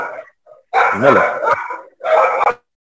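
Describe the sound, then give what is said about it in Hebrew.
A dog barks loudly, two long, strained barks after a brief softer yelp, with short silences between them and no one talking. “אוקיי, זה, זה, אני אוהב כלבים, אבל זה הכלב אה.”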